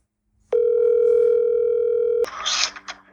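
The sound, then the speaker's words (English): A phone's steady, unbroken dial tone hums for nearly two seconds, then cuts off abruptly into a short burst of scratchy, noisy tones as the call connects. A son is phoning his father. No one speaks. “So I'm going to call my pops, my dad.”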